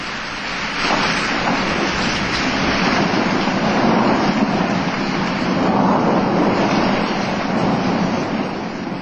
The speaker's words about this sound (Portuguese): Depois de quase uma hora de angústia e desespero, a tempestade foi se acalmando, assim como o mar.